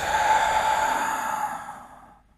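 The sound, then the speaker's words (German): A long, deep, breathy exhale during a breathing exercise, flowing steadily for about two seconds before tapering off into quiet. No talking over it. “Halten und aus.”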